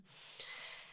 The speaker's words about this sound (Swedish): om du hör någon som snarkar lite i bakgrunden här då är det min springspaniel Siri som ligger här vid mina fötter